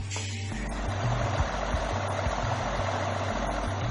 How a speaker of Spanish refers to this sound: Esta es solo una de muchas bombas instaladas para intentar rebajar el nivel del agua en el interior de la cueva.